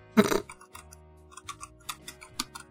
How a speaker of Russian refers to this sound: Ну, дело, пока, пока ты гуглишь, типа, свои клавиатуры, могу его подвинуть микрофон и, и клавиатуры, и вы можете послушать, как хорошая клавиатура звучит.